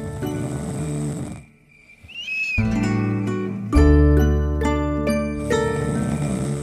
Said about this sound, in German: Schnarchen.